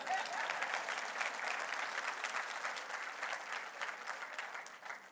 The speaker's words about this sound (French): Pourquoi? Parce que Jésus, il y a quelqu'un qui va applaudir, allons oh, allons avec lui.